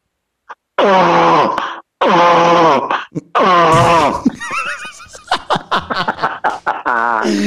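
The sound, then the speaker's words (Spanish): A man's voice imitates the sound a turtle makes when mating with a female, in a comedy sketch for Instagram, with three long, strained, groaning honks, followed by a burst of laughter and chatter from others nearby. “Eh, soy, amigos y amigas, soy Félix Rodríguez de la Fuente y así hace el sonido una tortuga cuando se aparea con una hembra”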